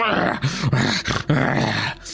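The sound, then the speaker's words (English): A person imitates a wolf that has just been struck with an axe, growling and snarling in three rough, wavering bursts, fairly loud, with no other sounds around it. “growls and snarls at you.”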